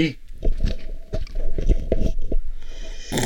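Wet slurping of a drink in a quick run of short bursts over about three seconds, with no talking.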